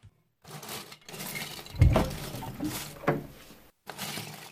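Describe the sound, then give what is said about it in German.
A few firm knocks on a child's bedroom door in the evening, fairly loud, spaced unevenly with a heavier thud among them, over a faint background hiss. No one speaks. “Da klopft es an der Tür.”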